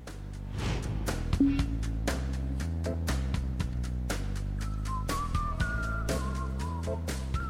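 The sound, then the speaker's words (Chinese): A whistled melody of steady, mid-high notes enters partway through, gliding between pitches over a rhythmic musical backing with punchy, regular beats and a low bass line. “因为这段我们需要一个旋律，那么我就只有吹口哨了。”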